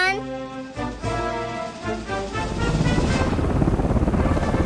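A helicopter's rotor chops in a fast, steady pulse, growing louder and fuller over the last couple of seconds after a tonal, musical opening.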